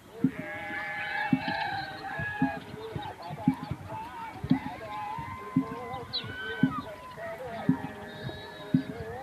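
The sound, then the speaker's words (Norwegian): Goats and sheep bleat repeatedly as a herd is driven home into the farmyards at sunset at the edge of Timbuktu, their overlapping calls mixing with a steady rhythm of dull thuds and a busy outdoor background. “Geiter og sauer blir drevet hjem, forsvinner inn i gårdene.”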